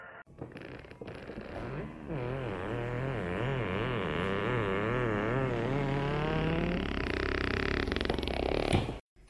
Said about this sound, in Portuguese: parecem gases, mas é só o barulho do sofá. Vocês estão ouvindo? Parecem gases. Eu acho que é o barulho do sofá.